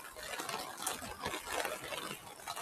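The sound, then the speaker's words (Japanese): Heavy rain pours down steadily outside, a dense, continuous hiss and patter that fills the whole moment without a break, loud, heard as the speaker steps outdoors. “ちょっともう雨の音が僕の耳にも入りすぎて、ちょっと話そうと思っていたことが、どんどん飛んでいってしまうので”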